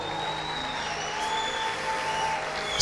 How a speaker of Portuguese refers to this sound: Vamos aplaudir o nosso pastor